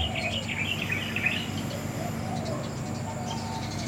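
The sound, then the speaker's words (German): Birds chirp and twitter in quick bursts, busiest in the first second or so, while a soft, low dove coo hums underneath against a steady outdoor background as light rain begins. “Mutter Natur, die das Leben spendet und die dafür sorgt, dass hier alles so lebendig blühen kann und die Vögel ihre Nahrung finden.”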